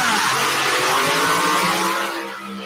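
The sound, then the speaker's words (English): A loud, sustained engine roar with a steady rumbling tone and layered harmonics, holding strong before easing slightly near the end, from a 7,400-pound modified pulling tractor, the River Rat of Wayne Longnecker out of Cambridge, Iowa, at full throttle pulling over 50,000 pounds. “7,400 pound modified. Hold your ears, ladies and gentlemen.”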